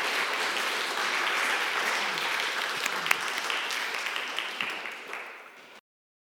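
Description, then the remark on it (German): Sustained applause at a church service for a man who has just told his story, a dense wash of many hands clapping at steady loudness for about five seconds, then thinning slightly before stopping abruptly. No voices are heard. “Ich glaube, es ist ein Applaus wert, dass er hier erzählt hat.”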